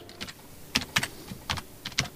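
Several sharp computer mouse clicks tap out at an uneven pace, fairly crisp, against a quiet background with no one speaking, as all the fire hydrants are displayed on a digital emergency map.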